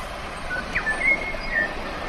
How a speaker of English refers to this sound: Yeah, that was it, folks. Yeah, a bellbird. Beautiful sound, eh? Um, look, I'll just play it again. Hang on, just a tick. Yeah, beautiful sound, like bell like sort of tone.